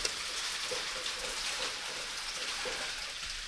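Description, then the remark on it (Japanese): Heavy rain pours down in a steady, dense hiss with no pauses, scattered droplets pattering faintly through the constant wash. No one speaks. “これ聞こえてますかね結構ね、降ってますよ。”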